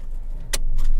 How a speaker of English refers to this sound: you're going to hear my seat buckle, but I promise I am not doing this while driving. I am sitting in the pickup lane to get my kid.